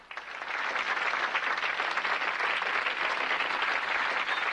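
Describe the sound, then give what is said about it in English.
A crowd breaks into applause, a dense, steady wash of many hands clapping that swells quickly and holds at an even, fairly loud level throughout, with no voices standing out. “Yeah, clap now.”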